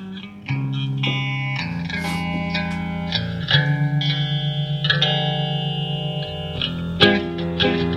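A pop-rock instrumental opening led by a distorted, effects-heavy electric guitar playing sustained chords with steady, loud energy and a reverberant sheen, with no singing yet.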